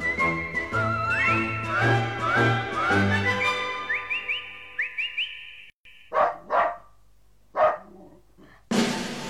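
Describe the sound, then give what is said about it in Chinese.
A small dog named Xiaohei gives three or four sharp, high yaps with short gaps between them, following a stretch of bright whistle-like melody with gliding notes over a low hum. “一只叫小黑的小狗从农夫家悄悄偷来一块肉骨头。”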